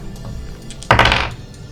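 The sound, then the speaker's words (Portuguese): A door is forced open with a shoulder: one heavy, abrupt thud with a brief rattling crash that fades within half a second, over a low background hum. No one speaks. “Se o resultado for igual ou menor que sua habilidade, você arromba a porta se o resultado for maior que a sua habilidade, a porta permanece fechada e você perde um ponto de energia pelo ombro machucado.”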